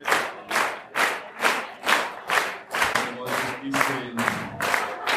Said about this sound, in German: Es ist schön, wenn hier alles so klatscht, aber ja, alles geht mal zu Ende.